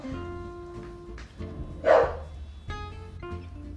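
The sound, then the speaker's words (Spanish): A dog named Albina, angered, gives one sharp, loud bark midway through, followed by a softer yelp, over a steady humming background with no talking. “No, dice Albina que ya le hice enojar.”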